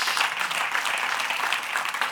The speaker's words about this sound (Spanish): Den un aplauso fuerte a nuestro Dios.